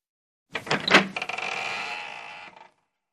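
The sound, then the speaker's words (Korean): The stiff door handle of the Red North, which sometimes catches, rattles and clunks in a few sharp jerks as it is lifted and pulled, then the door creaks open with a long, grinding groan that fades out after about a second. Fairly loud, no voices. “붉은 노스의 손잡이는 때때로 걸려서 잘 돌아가지 않는데 어찌어찌 힘을 줘서 손잡이를 들어 올리며 잡아당기면 발칵 열린다.”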